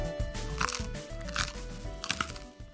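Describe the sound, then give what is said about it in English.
Chewing of bread, with soft crunchy bites landing at a steady, unhurried pace, about three distinct crunches, over a low, steady background tone. “You're chewing bread.”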